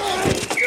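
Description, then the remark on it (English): A quick clash of football pads, two dull padded thuds about a quarter second apart with some scuffing in between, heard on their own without any talking. “The collide of football pads.”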